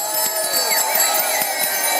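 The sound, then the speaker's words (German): A dense crowd of bicycle bells ringing all at once in a one-minute bicycle bell concert at noon on the weekly market square in Itzehoe, Germany: a continuous bright metallic jangle with overlapping rings and a faint background murmur, sustained and fairly loud throughout. “Mit einem einminütigen Fahrrad-Klingelkonzert um Punkt 12 auf dem Wochenmarktplatz”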